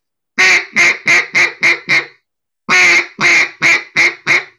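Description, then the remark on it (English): A duck call blown as a greeting call: two loud runs of quacks, each opening with a longer note followed by several shorter, descending quacks, separated by a brief pause. “imagine if you had a longer quack, shorter quack, shorter quack, shorter quack. That's more of a uh, a greeting call.”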